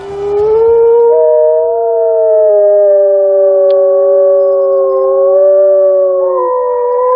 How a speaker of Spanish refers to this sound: Es inconfundible, es el lobo